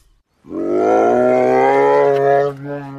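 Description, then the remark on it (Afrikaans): A bear growls angrily in one long, loud, rumbling roar that holds steady for about two seconds before cutting off into a brief, quieter tail, with no talking. “En nou is hy kwaad en hy grom vir die kleremakertjie.”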